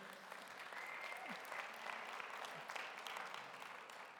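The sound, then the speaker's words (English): Sustained applause from an audience, a dense, steady clatter of many hands clapping at once that holds evenly for several seconds. “I don't think either of them are here, but could we just for a moment, could we give them a round of applause and appreciation?”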